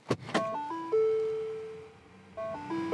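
Two quick mechanical clicks, then a car's door-open alert chime, one of the car sounds developed by the Detroit Philharmonic Orchestra, plays a short stepped electronic melody, holds a long steady tone, and starts the tune again. Clear, with no voices.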